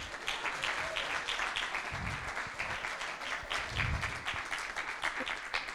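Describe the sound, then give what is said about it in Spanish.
Steady applause from an audience for a group of actors, many hands clapping in a dense, continuous patter that holds at an even loudness for several seconds, with a faint murmur of voices underneath. “fuerte aplauso para estos actores.”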